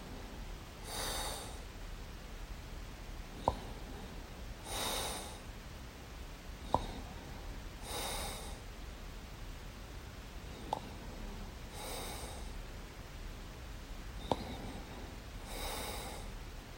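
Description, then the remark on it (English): A recording made at night at 4:57 a.m.: loud snorting inhales from a sleeper repeat steadily about every four seconds, each a harsh rasping burst, with a faint click between breaths and no talking. “So the breathing in is the tennis noise of the ball, and the breathing out is the.”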